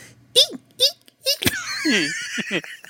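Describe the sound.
A voice imitates a hamster tumbling down stairs: a run of short, high squeaky yelps with a sharp thump midway, then longer wavering squeals sliding in pitch, fairly loud.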